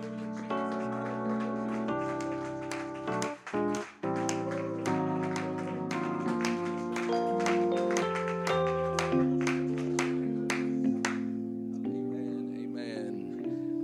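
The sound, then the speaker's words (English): An audience at a morning worship service claps in a steady rhythm along with loud, sustained keyboard or organ music, the sharp claps repeating throughout and cutting through the chords. “If you feel the Holy Ghost, if you love the Lord, clap your hands this morning.”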